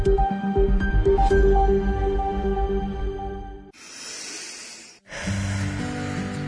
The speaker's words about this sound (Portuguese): Como é bom ouvir um filho respirando tranquilamente.